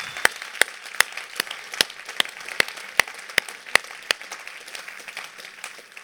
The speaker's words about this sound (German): Einen grossen Applaus, der gehört jetzt dir.